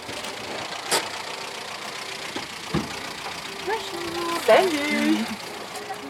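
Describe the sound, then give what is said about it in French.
The engine of a somewhat dented car idles steadily in a low, continuous rumble outside a country train station a little under an hour from Paris, while two voices briefly exchange greetings over it. “Elle est au volant de sa voiture un peu cabossée”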